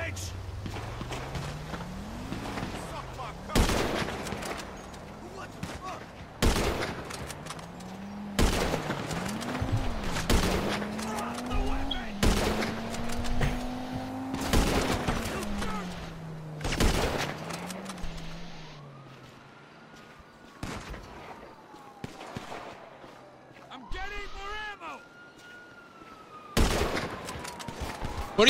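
A gun battle in the streets: loud, sharp gunshots crack out singly and in quick bursts at irregular intervals, over a low wavering engine-like drone that rises and falls.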